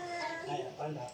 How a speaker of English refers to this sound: If you hear noises in the background, those are probably my children.